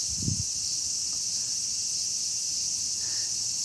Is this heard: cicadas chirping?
yes